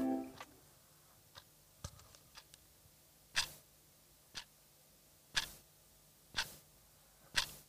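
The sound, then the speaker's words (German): A clock or alarm clock ticks steadily, one sharp click about every second, fairly quiet amid otherwise silence, with a few fainter clicks at the start. “Kennt ihr dieses Geräusch? Dieses Ticken von der Uhr oder vom Wecker.”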